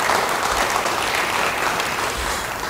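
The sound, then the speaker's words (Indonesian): An audience claps steadily, a dense, even wash of applause that stays loud and sustained for the whole stretch, with no voices standing out. “Yang mau beri tepuk tangan bagi dia.”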